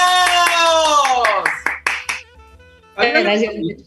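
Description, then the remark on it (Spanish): Brief applause welcoming a guest on a show: a loud, drawn-out cheering voice that falls in pitch, a handful of sharp claps, then a second short burst of voiced cheering. “¡Aplausos!”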